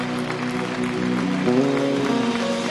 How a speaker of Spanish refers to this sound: fuerte aplauso al Señor en esta noche y así los dejamos con la persona indicada.